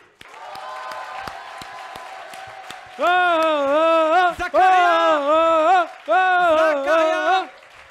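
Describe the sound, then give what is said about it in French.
An audience at a stage show claps in a steady wash of applause for a performer introduced as Max Piccinini, then loud, sustained cheering whoops rise over it in long bursts, prominent, before fading toward the end. “Mesdames et messieurs, s'il vous plaît, je vais vous demander un tonnerre d'applaudissements pour Max Piccinini”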